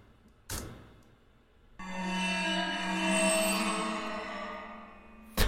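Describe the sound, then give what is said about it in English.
A bowed waterphone, an enclosed metal bowl with a tube that is filled with water, lets out a sustained, eerie metallic screech with wavering overtones, starting after a brief tap and ringing steadily for several seconds, fairly loud with no talking. “Um, and then the waterphone.”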